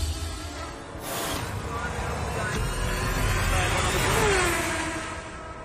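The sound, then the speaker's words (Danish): Formula 1 racing car engines roar in a dense, steady wash of noise, with a sharp burst about a second in and a whining pitch sweep near the end as a car passes. “Der har været noget med nogle motorlyde, som øh, lytterne ikke har været tilfredse med.”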